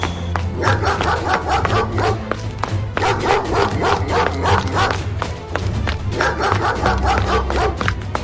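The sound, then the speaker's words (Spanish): A dog attacks and bites a person, barking aggressively in a rapid, relentless series of loud barks and snarls over a low rumbling background that continues for the whole stretch. “El perro puede salir en cualquier momento y atacarnos.”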